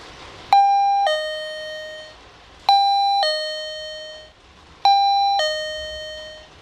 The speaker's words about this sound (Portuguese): Mas o pior é quando você é recebido por uma campainha, um sensor de movimento.